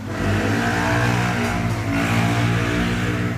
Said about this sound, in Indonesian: ada suara motor